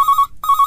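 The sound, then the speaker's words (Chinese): A phone ringtone for an incoming call in a recording studio plays two bursts of a bright, steady electronic tone separated by a short gap. Each burst has a slight pulsing warble, and the tone is loud with no voices over it. “啊不好啊不好意思，我接个电话啊。”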